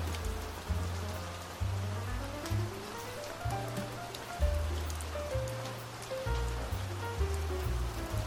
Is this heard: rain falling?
yes